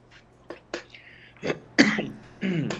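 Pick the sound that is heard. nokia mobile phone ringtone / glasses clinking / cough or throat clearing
cough or throat clearing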